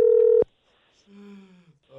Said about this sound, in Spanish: Ahí va, marcando.